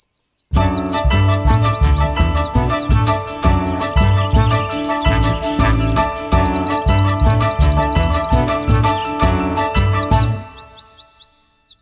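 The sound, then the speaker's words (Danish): A bright, bouncy piece of spring music with tinkling bells over a steady rhythmic beat, playing loudly for about ten seconds before cutting off, leaving faint birdlike chirps at the end. “Det er med klokker. Det er med dit, dit, dit.”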